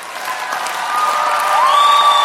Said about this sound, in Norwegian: Kan vi få en liten, uh, liten applaus på det? Skal vi ha sånn der fiktiv applaus, eller skal vi lage applaus?